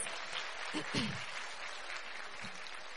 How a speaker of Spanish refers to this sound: Yo sé que hay muchas que hoy vienen por primera vez. ¿Quiénes vienen hoy por primera vez? Muchas, yo veo muchas caritas nuevas. Bienvenidos, démosles un aplauso de bienvenida a estas mujeres.